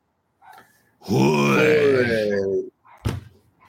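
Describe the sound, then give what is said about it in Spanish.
A person imitates a roar as a traditional farewell roar, with a single sustained, growling vocal bellow lasting about a second and a half, loud and harmonic with a slight pitch rise, followed by a short breathy exhale and a brief thump. “Nos, vamos a ir como nos gusta, nos vamos a ir como se debe, nos vamos a ir con nuestro rugido tradicional, nuestro rugido de despedida.”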